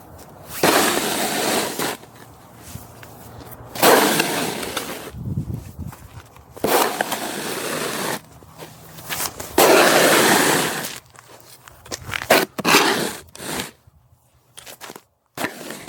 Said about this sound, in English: Despite the sound of constant snow shoveling in the winters